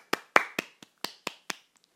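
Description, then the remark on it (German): About seven sharp, loud hand claps from one person, a very small applause, spaced unevenly over two seconds, followed by a couple of faint softer taps; no talking. “Es gibt gerade einen Applaus.”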